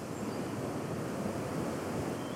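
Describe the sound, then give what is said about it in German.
Steady, dense roar of rushing water from a standing wave on a river canal at the Floßlände, where about 20 surfers ride the wave; a continuous churning hiss at moderate loudness with no breaks and no voices. “An der Floßlände ist auf einmal alles grün. Das Wasser, die Bäume, die gemähte Wiese.”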